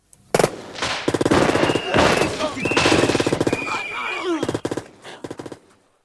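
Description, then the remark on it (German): Rapid bursts of gunfire crackle back and forth in a loud shootout as Dillinger and his men open fire on FBI agents surrounding the house, with sharp rattling volleys, a few high whining squeals between them, and scattered final shots trailing off. “Dillinger und seine Leute hatten das Feuer eröffnet.”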